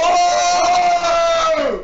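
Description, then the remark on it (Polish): A group of several friends, fans of the person they are talking to, shouts together on request in one loud, sustained burst of overlapping voices that lasts a couple of seconds, holds steady, then tails off at the end. “Może Dobra, koledzy... to może niech teraz krzyczą, żeby się pojawi...”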